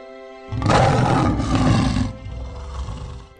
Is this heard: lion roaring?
yes